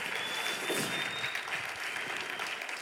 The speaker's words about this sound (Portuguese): Se você crê isso, dê para ele uma forte, forte, forte salva de palmas.